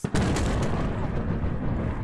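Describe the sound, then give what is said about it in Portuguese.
A Russian cargo ship carrying Iranian-made weapons explodes in the Black Sea off Ukraine: a powerful explosion bursts out with a sharp, loud blast, then rolls into a sustained, heavy rumble that fills the rest of the moment without fading. “Ucrânia, explodiu um navio cargueiro russo no Mar Negro.”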